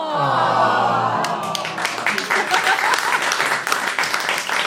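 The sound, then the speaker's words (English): An audience gives a sustained, sympathetic "aww," then breaks into a dense wash of steady applause with many hands clapping at once, continuing loudly to the end. “don't applaud because she's struggling too now.”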